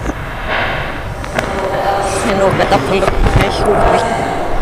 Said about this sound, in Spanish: ¿La, ¿La fritura de los patacones? Estamos en la última fritura del patacón.